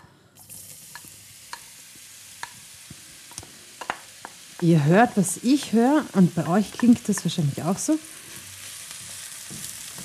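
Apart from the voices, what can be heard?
mushrooms sizzling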